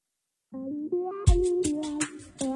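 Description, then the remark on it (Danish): A short electronic text message alert plays a few quick, buzzy tones in a rising pattern, with sharp percussive hits partway through. It is fairly loud, with no one talking. “Øh, den lyd, den kender vi alle sammen, ikke?”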